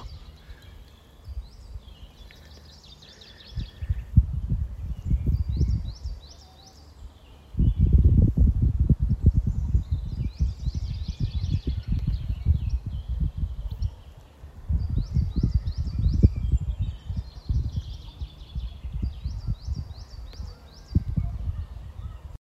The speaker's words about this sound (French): Écoutez, c'est le petit moment ASMR. Écoutez les petits bruits de la nature, les petits oiseaux.